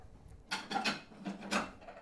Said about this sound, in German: Die Nudeln blubbern, die weißen Teller werden jetzt aus der Schublade herausgeholt und bereitgestellt.